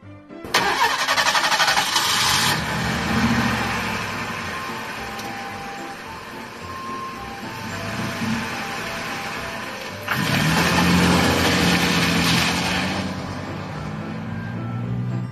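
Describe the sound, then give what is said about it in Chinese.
A bus at a stop cranks its engine and starts, then rumbles steadily as it pulls away before someone running for it can catch it, with a loud hissing surge near the start and another about ten seconds in. No one speaks. “眼看就要追上了，车子开了”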